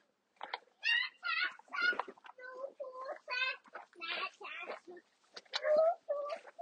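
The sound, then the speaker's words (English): A small child in the background makes a rapid run of high-pitched babbling squeals and yelps, short voiced bursts tumbling one after another, steady for several seconds. “Small child getting in on the podcast thought it was a dog behind the fence, but it was a small child.”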